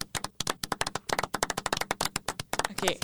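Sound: hand clapping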